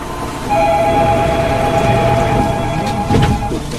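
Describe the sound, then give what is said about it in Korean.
A Line 3 subway train, the Gwihyang culture train displaying old Korean paintings, rolls along the tracks with a steady, loud rumble and a high electric motor whine, heard from inside the car, with no voices. “그래서 함께 제가 귀향 문화 열차 타봤습니다.”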